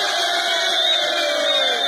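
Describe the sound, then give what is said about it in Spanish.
A large football crowd, mostly Argentines, invades the pitch shouting goal after a Senegalese player scores, roaring together in a sustained, loud wall of shouting, voices blending into one continuous cheer with no pauses over the two seconds. “uno de los senegaleses convierte el gol y toda la gente que estaba alrededor, que eran muchísimas personas, en su mayoría argentinos, se metieron, invadieron la cancha al grito de gol.”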